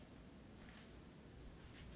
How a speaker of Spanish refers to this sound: escucha los pinches grillos y pregúntate, ¿de dónde putas vienen, güey?